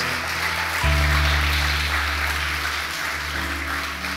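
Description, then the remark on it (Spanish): An audience applauds steadily, a dense, continuous wash of clapping, with sustained low keyboard chords droning underneath, giving a loud round of applause to God at a pastor's call. “Dale un fuerte aplauso a Dios si lo crees.”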